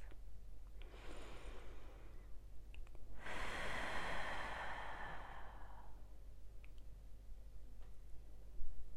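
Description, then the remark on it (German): A deep inhale drawn through the nose, followed by a long, loud, breathy exhale, part of a guided relaxation breathing exercise, alone with no talking. “Schließe dann bei der nächsten Ausatmung deine Augen Atme tief durch die Nase ein und laut wieder aus.”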